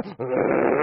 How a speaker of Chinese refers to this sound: 看地上有只狗，他也没注意，上去一脚就踩人狗尾巴上了，狗哪儿一嗓子就窜起来了。